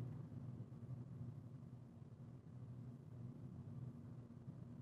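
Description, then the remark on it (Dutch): A steady, low engine and road rumble fills the cabin of a moving car driving through greenery, a continuous droning hum with no breaks and no voices over it. “Nu, op dit precieze moment, zit ik in een comfortabel warme auto een podcast op te nemen.”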